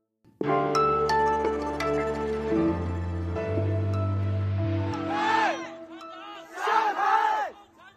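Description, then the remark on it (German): A protest crowd in Shanghai chants slogans in unison, "Down with the Communist Party, down with Xi Jinping", loud and rhythmic, with a sustained roar of many voices and rising, shouted bursts toward the end. The protests were sparked by a deadly high-rise fire in Urumqi. “Nieder mit der kommunistischen Partei. Nieder mit Xi Jinping, rufen die Protestierenden hier in Shanghai.”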